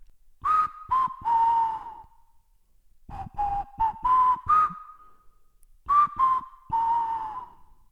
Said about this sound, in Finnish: Hän kertoi, että hän oli autossa värjötellessään kuullut ulkoa viheltelyääniä.